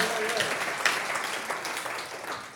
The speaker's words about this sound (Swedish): Vem har vi som är 80 år? Över 80 år. Come on upp med händerna. Come on, ge dem en stor applåd.